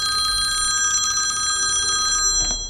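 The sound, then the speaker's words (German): A telephone rings at Burg Feuerstein, continuous and loud with a bright metallic trill, before cutting off abruptly near the end with a short clunk as Max the dog picks up the phone. “Leons Partner, der Hund Max, nimmt das Telefon ab.”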